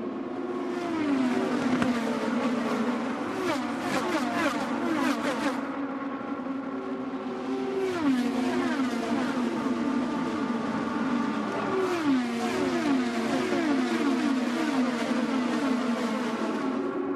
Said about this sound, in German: endlich wieder echter Motorensound in einem Highspeed-Oval statt Computerspielgesäusel, das uns die letzten Wochen unterhalten sollte.